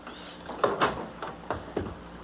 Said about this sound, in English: Oh, come on in. Close the door.